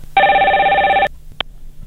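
A telephone rings once for a listener's incoming call to a broadcast program: a loud, steady electronic tone, bright with harmonics, lasting just under a second, then a brief faint click and quiet hum. No one speaks.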